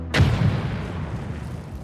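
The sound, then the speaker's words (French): A single loud explosion bursts out suddenly in a hotel room, its deep booming rumble rolling on and slowly fading for over a second afterward, with no voices present. “Mais, arrivée chambre 217, c'est soudain qu'une grande explosion retentit.”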